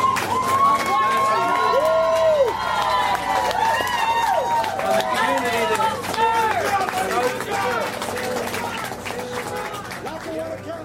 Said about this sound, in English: Outside of the courthouse, the cheers of the citizens of Luzerne County drowned out the prosecution's press conference.